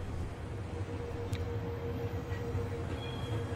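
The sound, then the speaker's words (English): A train bound for Warsaw rumbles steadily as it departs a station, a dense low roar with a faint metallic hum and a few brief high squeaks from the wheels, continuous throughout with no voices. “This wasn't the train. It departed right in front of my eyes.”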